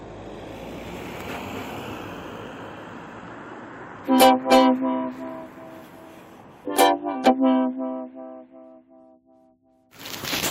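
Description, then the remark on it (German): Steady, rushing street traffic noise at the Fürstenhof bus stop, broken by two loud, sustained horn toots a few seconds apart, with the roar dropping and returning at the end. No talking. “So wie ist die Haltestelle hier für da Fürstenhof. Es wird laut, es wird unübersichtlich, es wird äh, anstrengend weiterzureden.”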